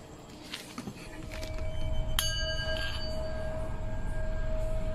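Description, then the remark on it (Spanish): A singing bowl, used at a tomb to invoke energies, rings with a steady, sustained tone, then is struck once sharply, adding bright shimmering overtones that hum on over low rumbling background noise. “A través de este cuenco invoco toda energía que se encuentra en este lugar.”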